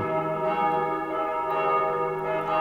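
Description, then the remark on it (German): Church bells ring continuously in a dense, overlapping peal, their resonant tones sustained and steady at moderate loudness with no one speaking. “Das ist zwar keine Melodie, die ich jetzt irgendwo in den Hitparaden finde, aber das hören wir vielfach von den Kirchtürmen.”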